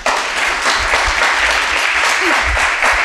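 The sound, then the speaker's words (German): Loud, sustained applause from a large audience welcoming two guests onto a stage, a dense steady wash of many hands clapping throughout, with occasional low thumps and a faint voice or whistle briefly rising above the crowd. “Und zwar mit einem großen Applaus bitte ich”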